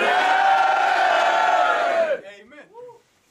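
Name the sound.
crowd cheering and shouting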